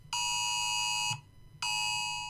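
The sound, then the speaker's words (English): Two sustained, loud electronic alert tones, each about a second long with a brief gap between, harsh and buzzy with strong stacked harmonics, a phone's emergency alarm blaring for a National Weather storm surge warning. “National Weather Storm Surge Warning.”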